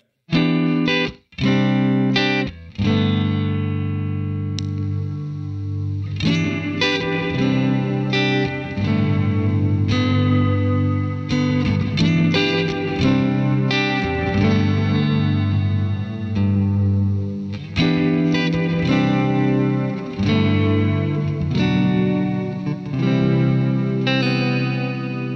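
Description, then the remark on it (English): A distorted electric guitar plays through an effects pedal, with thick chorus and echo coloring sustained chords and a few sharp rhythmic stabs, loud and continuous with no voices. “So yeah, let's uh let's hear that that sample now.”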